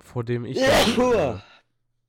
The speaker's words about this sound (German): Gesundheit, Meister. Jo, danke.